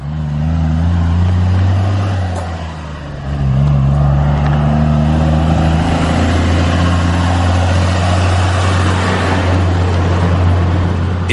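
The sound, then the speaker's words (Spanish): Heavy dump truck engines rumble steadily with deep low drones, dipping briefly near three seconds before revving back up, loud, with no voices present; the trucks come and go all day in the La Carrera area, known for limestone mining. “silbido de los pájaros y la voz de los paisanos diariamente es opacada por el ruido de los motores de las volquetas que van y vienen durante todo el día.”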